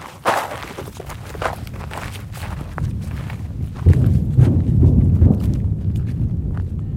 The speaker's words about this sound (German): Um einen Eindruck zu bekommen, wie sich dieser Krieg anhört und wie er aussieht, muss man erst einmal marschieren. Es geht über dorniges Gestrüpp auf einen Hügel. Zum Grenzzaun nach Gaza ist es Luftlinie nicht einmal ein Kilometer.